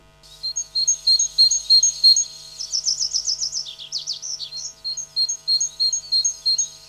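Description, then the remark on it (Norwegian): A great tit sings clearly, repeating rhythmic two-note phrases, briefly breaking into a quick run of sliding notes, then returning to the steady see-saw pattern. No voices. “Det du hørte der, det var en eh, kjøttmeis.”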